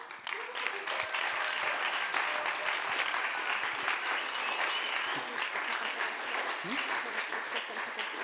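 A crowd applauds steadily for the speaker's wife as she is called up, a dense wash of many hands clapping at an even, loud level for the full stretch, with no voices standing out above it.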